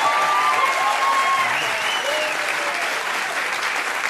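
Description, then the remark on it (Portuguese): The audience of the talk show Conversa applauds a musician who sings and plays, a dense, even wash of clapping with a few faint whistles or cheers rising briefly above it, holding at a constant loud level. “Eu, eu Para aplaudir.”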